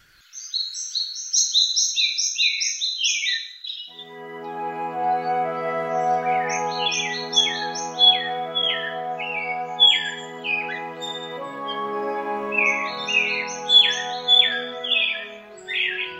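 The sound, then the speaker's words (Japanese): An eyebrowed thrush sings among large sudajii (Castanopsis) trees in Rikugien garden, clear high-pitched phrases repeated in short bursts with brief pauses. A few seconds in, a steady sustained musical drone joins and continues beneath the song. “陸義園の白鳥関には大きなすだじが何本もありその中で真美茶寺内はさえずっていました”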